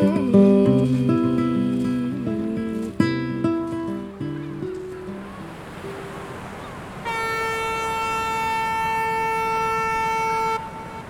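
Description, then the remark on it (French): A ship's foghorn sounds one long, steady, loud blast lasting a few seconds as the boat from Belle-Île-en-Mer begins arriving at the mainland at the end of the crossing, following a stretch of shifting melodic tones and background noise, with no voices. “La corne de brume annonce la fin du trajet alors que le bateau amorce son arrivée sur le continent, je pense enfin à ce dernier instant.”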